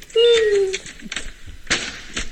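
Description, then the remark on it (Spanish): A door swings shut as someone leaves for work: a brief squeaky creak that slides downward in pitch, followed by a few sharp clicks and knocks as it latches. “Cierra la puerta cuando vaya.”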